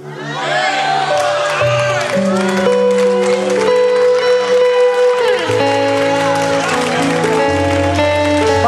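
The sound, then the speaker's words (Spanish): A church audience claps to give glory to God, clapping along steadily over loud sustained music and voices, the handclaps blending into a dense, continuous wash of crowd sound for the whole stretch. “Date palmas dando gloria.”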